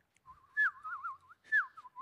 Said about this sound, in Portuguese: Você coloca uma música de passarinhos.